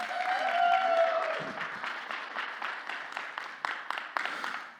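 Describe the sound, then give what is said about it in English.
An audience applauds steadily for several seconds, welcoming two students coming up on stage: a dense patter of many hands clapping at once, with a brief whoop early on before the clapping gradually thins out. “Why don't you guys give them a warm welcome?”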